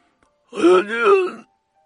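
A single anguished, agonized scream from a man being strangled in a toilet, voiced and tonal, rising and falling in two swelling pushes over about a second, fairly loud and alone, with silence before and after.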